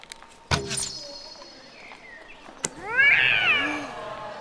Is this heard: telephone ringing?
no